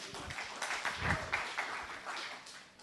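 An audience applauds, a dense crackle of many hands clapping at once, steady and fairly loud for about three seconds before easing off slightly at the end.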